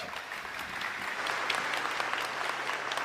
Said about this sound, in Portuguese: Salva de palmas, gente.